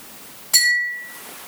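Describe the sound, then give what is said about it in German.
One bright glass clink rings out clearly against a quiet background, its high, pure tone lingering and fading over about half a second. “Erstens Dinge aus Glas.”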